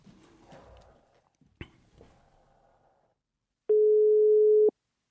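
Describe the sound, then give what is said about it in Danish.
A single loud, steady telephone ringing tone sounds for about a second as a call is placed to the Danmarksdemokraterne party's press phone, preceded by faint clicks and handling noise on a quiet line as the call connects. “så lad os da prøve at ringe til deres prestelefon. Burde være sådan en, der svarer.”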